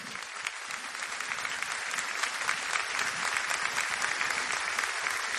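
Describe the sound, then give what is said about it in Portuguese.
An audience applauds the Lord, a dense wash of many hands clapping at an even loudness for several seconds, with no one speaking over it. “Pode aplaudir o Senhor.”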